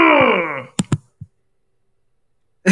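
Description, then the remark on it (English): A person vocally imitates a video game character's low, drawn-out bass death groan that slides downward and fades, followed by a couple of short, sharp clicks and a soft thump before a burst of noise at the end. “then you get Dengar, who's another one of those just kind of boring bass ones”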